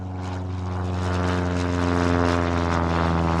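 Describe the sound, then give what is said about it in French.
An early propeller airplane engine, evoking Louis Blériot's 1909 flight across the English Channel from Calais to Dover, drones steadily and loudly throughout, its low, buzzing harmonic hum swelling slightly, with no voices present. “En 1909, après 32 échecs, Louis Blériot parvient enfin à traverser la Manche en avion de Calais à Douvres en 37 minutes.”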